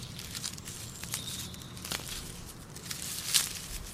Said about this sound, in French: T'entends pas Bah, d'où provient ce son Oh Mais c'est une limace qui mange une feuille